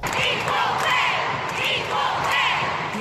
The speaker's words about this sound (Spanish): Los fans gritaban igualdad de salario, lo que las chicas vienen exigiendo tras una demanda contra la Federación de Fútbol de los Estados Unidos por discriminación de género.